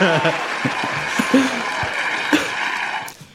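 A burst of clapping from a group applauding the winner of a quiz, a dense, steady patter of many hands for about three seconds with a few sharper claps standing out, fading quickly at the end.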